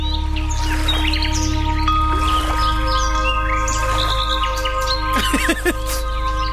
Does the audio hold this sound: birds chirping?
yes